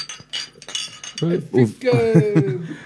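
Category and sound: household object, glasses clinking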